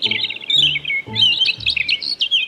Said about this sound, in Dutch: Weten jullie wat dit is? Ja, hè? Dat zijn vogeltjes die fluiten.